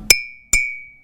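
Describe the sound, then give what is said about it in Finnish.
Two sharp taps on a mug of cold milk, each producing a bright ringing clink whose high tone lingers and slowly fades, with no talking. “Se jää selvästi tosiaan soimaan.”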